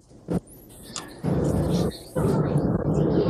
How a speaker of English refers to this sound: I farted.